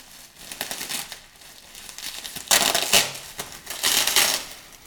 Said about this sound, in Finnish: Ku, kuplamuovia vähän. Joo eihän nämä niin sillä särkyviä ole. Mutta tämä kuplamuovi on vaan kyllä kestävää sillä lailla.